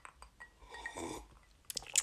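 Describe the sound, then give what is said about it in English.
A quiet sip of Screwball peanut butter whiskey: soft mouth clicks, a brief slurping draw in the middle, then a few sharper wet smacks at the end, with no talking. “One more sip of the peanut butter whiskey.”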